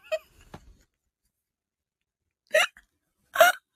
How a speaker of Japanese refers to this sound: 数秒おとなしくなった時何か飲んでることも、飲んでます、飲んでます。